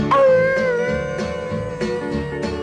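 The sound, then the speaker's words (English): A drawn-out, wavering howl like a dog baying at the moon rises over a steady band backing with regular strummed beats, loud, likely a voice imitating the howl. “You got me chasing rabbits, walking on my hands and howling at the moon.”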